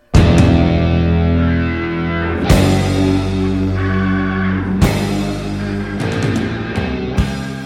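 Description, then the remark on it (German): Loud, distorted, bombastic electric guitar chords rise, strike and ring out, each big chord landing roughly every two and a half seconds over a dense, sustained musical backdrop, with no voices, played from a vinyl record on a stereo. “Leises Knistern ging in eine wimmernde Volksweise über, ein leises Akkordeon überlagert mit einer Klarinette, dann diese bombastischen, aufsteigenden Gitarrenakkorde.”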